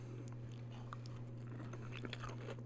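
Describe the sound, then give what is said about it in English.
Biting and chewing of crunchy fresh food with croutons and creamy ranch dressing, with irregular crisp crunches over a steady low electrical hum and no talking. “And it's something fresh mm. and crunchy with a nice creamy ranch dressing.”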